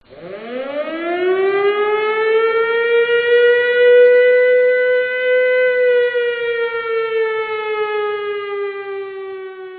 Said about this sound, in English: Give me the siren.